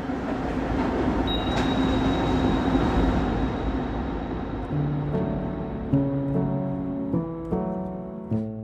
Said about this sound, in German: Ich befinde mich auf einer Zugfahrt. Und ich glaube, man hat es schon gemerkt, das ist keine gewöhnliche. Ich fahre zwei Kilometer in einen Berg hinein. Mit einer Elektrolok, nur mit einem Bademantel bekleidet, an der Seite des Zugführers.